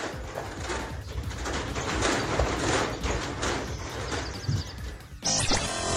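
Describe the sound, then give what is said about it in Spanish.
A volcano near San Pedro Benito Juárez, Puebla, Mexico, gives off a continuous, heavy rumble with deep booming surges, loud and noisy throughout, shifting abruptly near the end. No one speaks. “En redes sociales circula un video del momento en el que se escuchaba los estruendos del volcán en San Pedro Benito Juárez, Puebla.”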